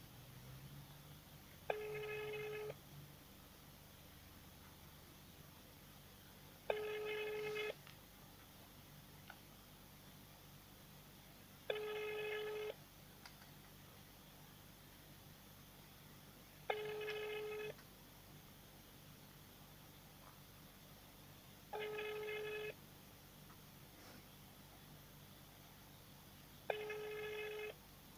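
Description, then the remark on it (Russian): A phone line rings unanswered: six evenly spaced buzzy ringing tones, each lasting about a second and repeating roughly every five seconds over a low, steady hum. “втихаря, да, перестали отвечать на телефонные звонки.”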